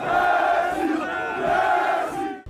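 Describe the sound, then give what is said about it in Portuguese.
A large crowd of fans at the entrance of the airport in Paris chants loudly in unison, voices rising and falling in a sustained, rhythmic melodic cheer that continues steadily throughout, with no single speaker standing out. “A entrada do aeroporto em Paris ganhou ares de arquibancada.”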